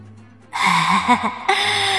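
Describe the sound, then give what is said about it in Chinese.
A woman's heavy, ragged panting breaths, loud and harsh with a low voiced rasp, one long breath running straight into the next after a brief silence, with no talking. “人哪有这样喘气儿的？而且那女人的喘气速度越来越快。”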